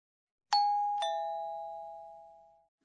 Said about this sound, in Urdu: یہ تو گھنٹی کی آواز ہے جی ہاں اور جاپانی میں اس آواز کو اس لفظ سے ظاہر کیا جاتا ہے